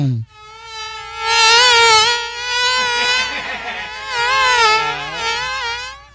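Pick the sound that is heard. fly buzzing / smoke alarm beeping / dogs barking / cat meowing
fly buzzing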